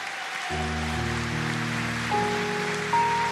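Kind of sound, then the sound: crowd, audience applauding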